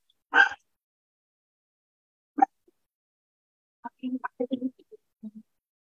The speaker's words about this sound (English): I don't know if you can hear my dogs uh, barking behind.